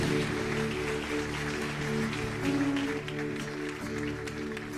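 A church audience applauds the Lord steadily for the whole stretch, a dense crackling wash of clapping. Sustained musical tones hum underneath the clapping.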